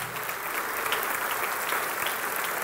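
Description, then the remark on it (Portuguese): Steady audience applause in a church service, given to the King of Glory after a woman's testimony, a dense crackle of many hands clapping at an even, sustained level with no voices standing out. “Vamos dar um aplauso ao Rei da Glória pela sua vida.”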